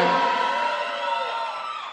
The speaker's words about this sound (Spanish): Fuerte aplauso.